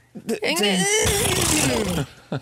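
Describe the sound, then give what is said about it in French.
A person's voice mimics a horse's whinny, a loud, shaky, wavering cry about two seconds long that rises and then quavers downward. It is preceded by a brief vocal breath and ends with a short sound. “Ça, c'était un bon, super bon J'ai fait un bon son de cheval.”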